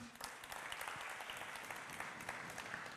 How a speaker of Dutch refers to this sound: Laten we een applaus geven.